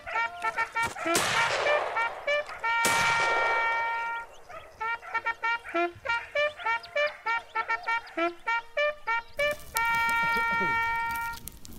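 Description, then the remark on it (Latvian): Two loud, sharp gunshots that miss crack out in the first few seconds, each with a brief decaying tail, set against a bright, rhythmic tune of repeated tonal notes that continues to the end. “Sarunas pilguns, kurš šauj garām.”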